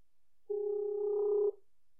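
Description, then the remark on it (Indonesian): A single steady telephone ringback tone of an outgoing call sounds for about a second, clear, a flat electronic hum with faint harmonics, then stops, leaving silence with no voices. “Mari kita tanya, siapakah dia? Yuk telepon langsung.”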